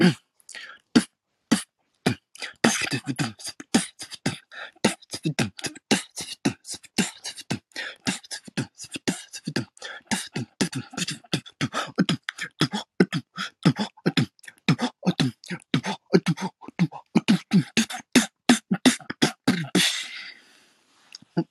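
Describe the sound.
A solo beatboxer gives a live performance of fast vocal percussion, with sharp mouth-made kick and snare hits and hissing hi-hat sounds in a steady, busy rhythm, loud, running for about twenty seconds.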